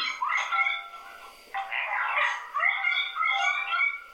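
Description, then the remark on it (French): A dog barks in a string of high, yelping calls that run almost continuously for several seconds, fairly loud, with a short break partway through and no talking. “Bah, il y a un chien, quoi.”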